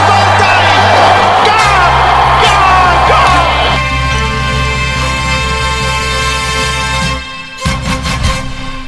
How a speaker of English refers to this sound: Got it! Crowd cheers. Here's Siddle. He's got it! He's got it! Baylor siddle has got a hat-trick